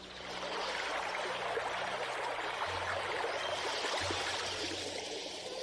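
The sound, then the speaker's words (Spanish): Steady rushing water from a waterfall, a dense continuous roar with a bright splashing hiss, constant in level, with no voices. “Subía por el cerro y se detenía hasta llegar a una cascada.”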